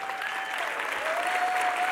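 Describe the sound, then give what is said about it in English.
An audience at Word of Life Church stands and applauds to welcome two pastors. The clapping is steady and dense and holds at a loud, even level throughout, with a faint sustained high tone running through the crowd noise. “I want to go ahead and I want everybody, if you wouldn't mind, um, rising if possible, standing to your feet and welcoming”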